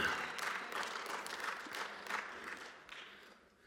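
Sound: audience clapping and cheering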